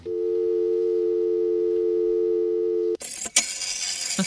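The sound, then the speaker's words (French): A steady, loud telephone dial tone hums for about three seconds, then cuts to harsh, hissing fax machine screeches and warbles. No voices. “Voilà, alors autre son, celui du téléphone et du fax, et là aussi, c'est une autre époque.”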